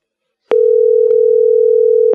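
A steady telephone dial tone hums at a constant pitch for about a second and a half, starting and ending with clicks, plus a faint click midway. No one speaks.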